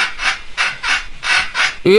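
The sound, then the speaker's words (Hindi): A washing machine in an apartment home creaks loudly during its spin-dry cycle, making a steady rhythm of about six rasping, rubbing strokes, then ending on a sharper rising squeak. “washing machine चलती है धुल जाते हैं कपड़े तो लेकिन जब सुखाने की बारी आती है तो आवाज बड़ी अजीब अजीब सी आती है”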